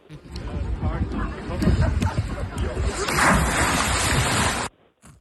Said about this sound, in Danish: Men man, men man kan høre det på den måde, du bryder vandet på.